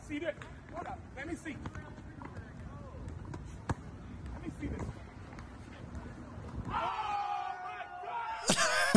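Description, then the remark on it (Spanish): A basketball thumps repeatedly on street pavement amid street noise and scattered voices as a man challenging people in the street has the ball passed to him and throws it, then a burst of loud excited shouting and cheering erupts near the end. “un señor está retando a gente en la calle y le pide que le pasen un balón de básquet y lo tira desde una”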